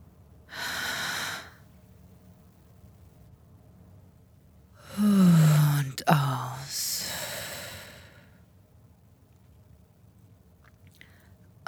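Slow breaths drawn through the nose by a person lying on a mattress, three separate airy passes with pauses between, the middle one carrying a brief low voiced sigh; otherwise quiet, with no talking.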